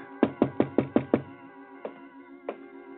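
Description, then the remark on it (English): A quick run of six firm knocks on a wooden door of living quarters at La Rabida, late on a winter night, followed by two slower, separate knocks, with a low sustained musical drone underneath. “I was in my quarters at La Rabida, and there was a knock.”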